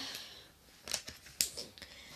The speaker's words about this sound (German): So, dann nehme ich mir jetzt einen Stift und schreibe hin.